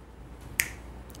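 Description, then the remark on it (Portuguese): A single crisp finger snap cracks out sharply and fades almost at once, with only a low, steady background hum before and after. “É num piscar, é num estalar de dedos.”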